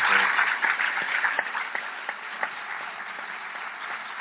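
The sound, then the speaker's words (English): An audience applauds Ta-Nehisi Coates and James Bennet at the close of a conversation, a dense wash of many hands clapping at an even loudness throughout, with occasional sharper individual claps standing out. “Please join me in a warm round of applause for Ta-Nehisi Coates, for James Bennet.”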